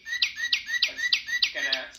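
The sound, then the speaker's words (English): A bird-chirp noisemaker, used as a contestant's buzzer in a quiz game, tweets about six times in quick, even succession, bright and shrill, with a brief low hum underneath near the end. “Oh, what a lovely bird.”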